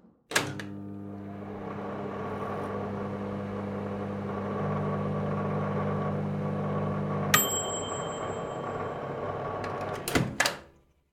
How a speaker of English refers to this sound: Okay, so we're back from our uh, microwave meal moment. I have to say that this one um, was an actual disaster. It was it's, a bummer. It was a bummer.